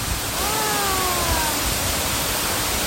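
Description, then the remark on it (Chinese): The Virgin Falls (處女瀑布) waterfall roars in a steady, dense rush of water noise that holds constant throughout, its spray carried onto the listener. A faint, brief wavering tone rises over it early on, then fades. “在處女瀑布前的練功，獲得一些靈感”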